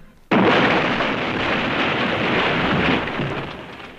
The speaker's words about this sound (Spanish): Shropshire, Inglaterra, año 1991 del siglo XX. Un gran piano de cola vuela por sobre los árboles para caer con sonoro estruendo en la pradera de Acton Round.